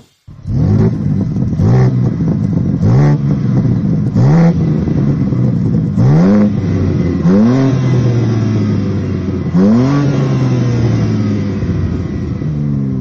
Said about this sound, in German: Aber bevor wir wirklich zumindest akustisch auch verraten, welches Auto das ist, einmal kurz der Sound bitte. Und ab.